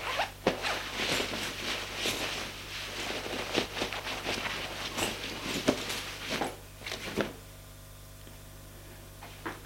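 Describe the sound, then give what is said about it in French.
A man undressing in his bedroom: a burst of scratchy zipper pulls and fabric rustling, irregular and fairly loud for about seven seconds, then settling into faint rustles over a low, steady hum. “se déshabille.”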